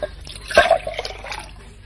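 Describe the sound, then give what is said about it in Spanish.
Someone drinks water: a single wet gulp or slosh of liquid, followed by a few fainter trickling drips trailing off. No one speaks. “Eso, mija, toma agua.”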